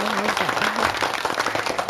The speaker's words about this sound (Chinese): 好，大家都已经拍拍手了。